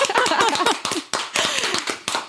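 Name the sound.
applause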